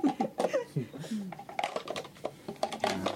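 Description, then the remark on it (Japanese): A small prototype stationery case clacks open and shut several times in quick, uneven succession, with people talking over the crisp plastic clicks. “ガチャガチャ音もしないしでこのかパカパカっていう音がなかなか、うん、音がいいんですよ、いいんですよね、うん、これがなかなかいい音じゃん”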